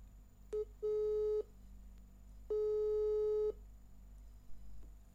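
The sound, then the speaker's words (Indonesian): A telephone ringback tone sounds while a call is placed: a brief blip, then two steady, buzzy tones about a second long with a pause between, clear against faint background hum and no voices. “mungkin langsung kita uh, telepon aja kali ya langsung kita telepon”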